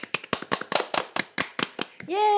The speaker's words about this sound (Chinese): 大家看了标题，应该就知道我们这集没有要介绍特别介绍哪个国家或城市，主要是因为这集是第十集。 对， 鼓掌！